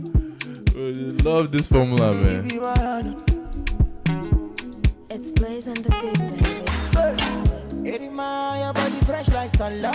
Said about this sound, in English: Man, a lot of songs sound like this, bro.